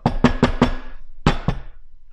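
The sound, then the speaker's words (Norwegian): Four quick, firm knocks in a steady rhythm, a short pause, then two more, loud with a hollow, woody ring and no voices. “Bank. Det var litt banking der og styr.”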